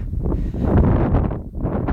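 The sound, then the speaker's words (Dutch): Strong wind buffets the microphone in a continuous, loud low rumble with gusty surges and a brief dip, with no voices heard. “dat je nog goed te horen ben, Dat waait je behoorlijk.”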